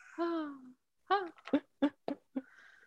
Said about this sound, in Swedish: Jag vet inte om ni hör min superglada bebis eh,